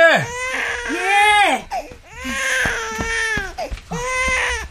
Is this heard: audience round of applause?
no